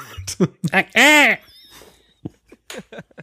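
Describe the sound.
A voice imitates the squawking of the aliens from the film Mars Attacks: a burst of choppy, clipped syllables, then a loud, shrill, sustained squeal with strong harmonics, trailing off into a few short squeaky chirps.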